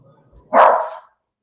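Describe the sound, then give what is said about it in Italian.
A single loud dog bark rings out sharply early in the morning, one of two dogs present, after a moment of faint low background noise, then cuts off into silence. “è mattina presto, questi abbaiano.”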